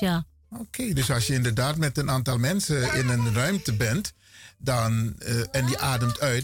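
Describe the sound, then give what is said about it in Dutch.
A child's voice chimes in from the background, high and sing-song, while adults keep talking steadily in the foreground, partly overlapping the conversation. “Ja, beste luisteraars, u hoort een, een kinderstem op de achtergrond.”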